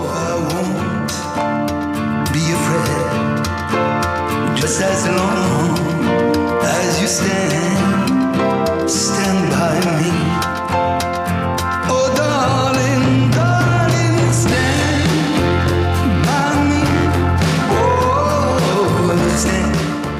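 A man sings a rock and roll song over a full, steady band backing, the music loud and continuous throughout.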